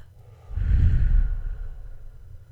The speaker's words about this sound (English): Breathing in through your nose and out through your mouth.